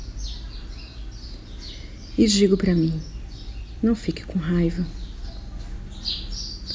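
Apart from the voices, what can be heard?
birds singing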